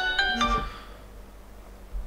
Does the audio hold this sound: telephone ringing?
yes